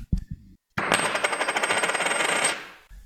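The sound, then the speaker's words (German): A gold coin is dropped onto a table from a short height, with a couple of quick clinks followed by a long, bright metallic ringing and rattling as it spins and settles, clear. “Können Sie dir einfach mal uns hören lassen, wie die klingt, mal runterwerfen auf den, auf den Tisch”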